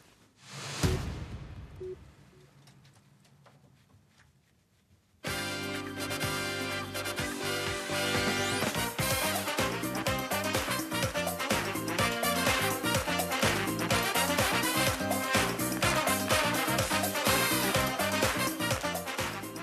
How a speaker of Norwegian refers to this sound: Her hører vi introen til Skal vi danse på TV 2. Programmet er inne i sin tiende sesong og ble det mest sette TV 2-programmet i helgen.